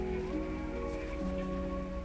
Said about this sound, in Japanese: 雨ですね雨です